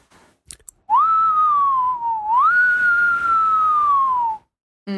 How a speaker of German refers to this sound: Außerdem wird's hier dann saukalt drin, weil der Wind dann hier durchpfeift.